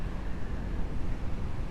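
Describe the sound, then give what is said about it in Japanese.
Ocean waves wash steadily onto the shore in a continuous, rumbling hiss with a heavy low roar, moderately loud, with no voices. The waves at this spot are rougher than usual. “いつもはこの辺はもう少し波が穏やかなんですけど今日は結構うるさくはないよかったよかった”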